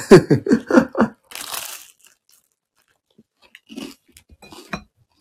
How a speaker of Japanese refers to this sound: えー、ガサガサ、すいません。